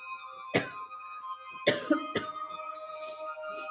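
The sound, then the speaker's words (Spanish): A person coughs three times: one sharp cough, then a quick pair a second later, over a faint steady background hum. “Perdonen mi tos, ya saben que me queda esta tosecito horrible.”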